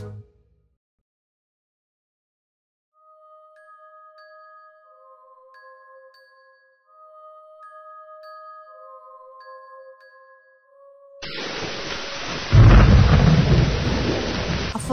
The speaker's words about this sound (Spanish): llovía muchísimo.